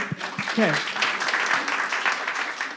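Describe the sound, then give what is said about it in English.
An audience claps in a dense, steady patter of many hands, fairly loud and sustained throughout, with a brief spoken voice audible near the start. “Round of applause to”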